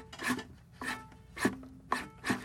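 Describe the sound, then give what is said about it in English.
Five raspy, squeaky slides of fingers along the wound strings of a string instrument's fingerboard, spaced about half a second apart, each with a faint low note ringing underneath; soft, with no talking. “i love that sound and i wrote this whole you know that sound that's me just sliding my fingers on the fingerboard.”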